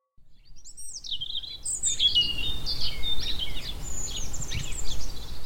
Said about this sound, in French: Quand mes collègues ont rendu visite à Christophe Gatineau au nord de Limoges, il binait son potager et on entendait bien le chant printanier des oiseaux.